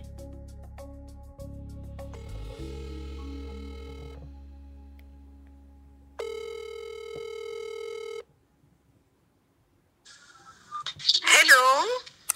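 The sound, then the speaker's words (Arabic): A video call ringing tone plays: a sustained electronic hum, then bright repeating tonal chimes in two bursts, followed by a short pause before a voice answers. It is a morning video call to family, answered by a mother's greeting. “هلا الوضع غير شكل بحكي الصبح معهم نشرب قهوة مع بعض على الفيديو كمان”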